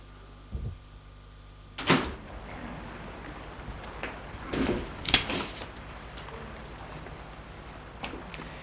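door being opened

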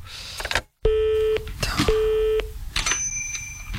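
telephone dialing tones

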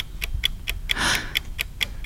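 clock ticking

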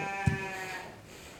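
sheep bleating

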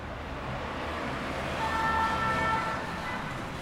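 city car traffic

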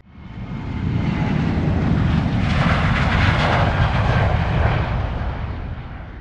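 airplane engine in flight

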